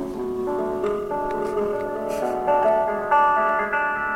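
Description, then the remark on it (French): A rap track plays continuously through a small phone speaker, thin and tinny with no deep bass, its layered tones and vocal line holding steady at a moderate level for a few seconds. “ça s'écoute comme ça avec un téléphone.”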